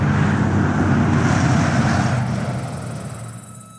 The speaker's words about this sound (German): Viertel vor elf. Der Autobus ist weg.